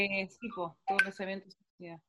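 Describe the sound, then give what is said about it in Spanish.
A run of short WhatsApp message notification tones on a phone, several quick chimes in close succession, fairly loud, with a brief pause before one last tone. “Ay, silencio al WhatsApp, por favor.”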